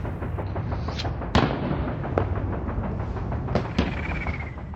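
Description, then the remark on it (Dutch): A Canadian and British 'pepperpot' artillery barrage on 8 February, first day of Operation Veritable, with more than a thousand guns plus tank guns, mortars, anti-tank guns, machine guns and anti-aircraft guns firing nonstop: a dense, rolling wall of rumbling booms, with several sharper, louder blasts cracking out over the steady roar. No voices. “Dit was trouwens wat de Canadezen en Britten een pepperpot barrage noemden.”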